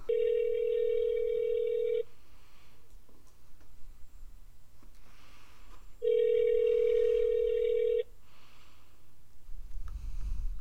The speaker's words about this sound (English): It normally takes forever. It waits till like the last ring to answer his phone. I don't know why.